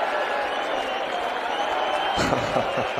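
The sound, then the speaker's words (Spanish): A dense wash of crowd applause for the match point at a tour event in Mexico fills the whole stretch, steady and fairly loud, with a voice starting up over it near the end. “Vamos a aplaudir.”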